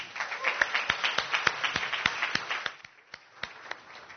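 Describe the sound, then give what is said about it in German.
A church audience at an Easter service applauds for the people following along in the overflow broadcast room, the dense clapping settling into a steady rhythmic beat before thinning out toward the end, with a few voices murmuring underneath. “Und vielleicht können wir denen draußen einfach mal einen Applaus geben.”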